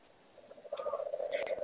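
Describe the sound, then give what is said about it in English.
Frogs calling in Costa Rica in a steady, pulsing chorus, a continuous trilling drone with a few brighter chirps layered on top, moderately loud and growing slightly toward the end. “I have to apologize, but the frogs are in the background right now.”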